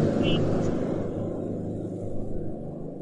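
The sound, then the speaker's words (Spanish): A motorcycle engine rumbles past, a steady low roar that slowly fades as it moves off, with a faint voice underneath. “el ruido que podéis escuchar es una moto que acaba de pasar que estoy, estoy aquí ah, en un sitio, entonces pasan motos.”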